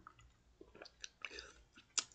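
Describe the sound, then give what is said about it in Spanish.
Someone takes a quiet sip of coffee from a small cup on a Saturday morning: soft slurping and wet mouth clicks over about two seconds, ending in a sharper little click, with no talking. “Tengo aquí mi tacita de café. Estoy grabando un sábado en la mañana. Un sorbito.”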